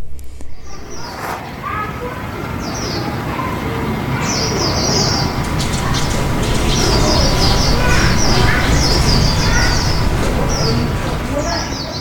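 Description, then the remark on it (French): Birds chirp and sing in quick repeated bursts outdoors, heard from the rooftop of a centre, with pigeons cooing low among them, all over a steady bed of open-air background noise. “Là, vous pouvez entendre les oiseaux que j'entends depuis le rooftop du centre.”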